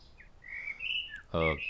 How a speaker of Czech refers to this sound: Myslím, že tančí do rytmu zpěvu toho kosa.